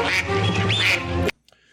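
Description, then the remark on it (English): A loud duck quack sound effect, played for the Oregon Ducks football team, nasal and buzzy, sustained for over a second as a rapid raspy run before cutting off abruptly into near silence. No one speaks. “Next up, we've got Oregon Ducks.”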